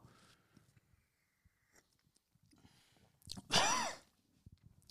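One loud, harsh choking cough bursts out after a stretch of faint shuffling and swallowing sounds, rasping and strained for about a second before fading to quiet; someone has swallowed wrong while drinking apricot schnapps (Marille).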